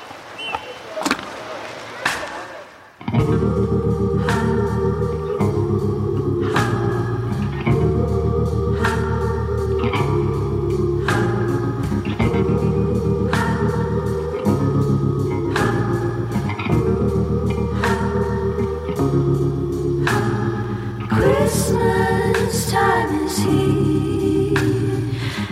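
Holiday Christmas music plays from a CD after a few seconds of quiet clicks, loud sustained chords shifting steadily over a regular, gentle beat.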